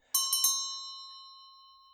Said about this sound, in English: Now, as Scrooge threw his head back in the chair, his glance happened to rest upon a bell a disused bell that hung in the room and communicated for some purpose now forgotten with a chamber in the highest story of the building.